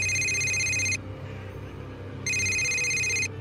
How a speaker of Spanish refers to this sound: Tenía las luces apagadas y el televisor encendido en el canal de compras, cuando nuevamente mi celular sonó.